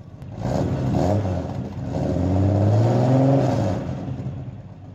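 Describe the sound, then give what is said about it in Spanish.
A car engine revs up with rising, whining tones, then holds a steady drone as the car pulls away into the darkness at night, loud throughout with no voices. “Le dieron un culatazo en la panza para que se callara, lo metieron dentro del auto y desaparecieron en la oscuridad.”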